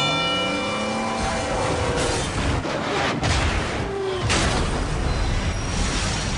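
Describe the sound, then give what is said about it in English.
A heavy million-pound freight train, one that takes a mile to stop, rumbles loudly and steadily past on the tracks at a crossing, with a screeching metallic tone at the start and sharp clanks and bangs mixed into the roar. “And on the tracks, we have Bull, a million-pound freight train that takes a mile to stop.”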